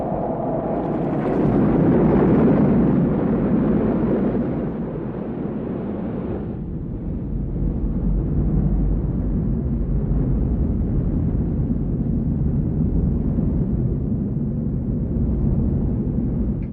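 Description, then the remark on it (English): A simulated, deep, continuous roar of rushing surf, loud, as heard from a surfboard inside the tunnel of a curling wave, swelling for a few seconds and then settling into a steady churning rumble with no voices. “I knew what that sound was exactly sounded like when you're in the tunnel”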